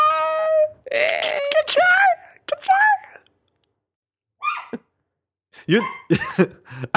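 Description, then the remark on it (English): A dog whines and howls in several short, wavering bursts that rise and fall in pitch, separated by brief pauses, with some rough breathy vocal noises mixed in, responding to a person speaking in a high pitch. “that's that's the dog responding to your.”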